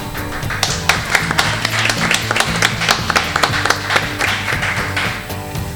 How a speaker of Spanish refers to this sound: o sea que yo también desde aquí, al menos a mi título personal, un abrazo y un aplauso para Raquel Cuesta.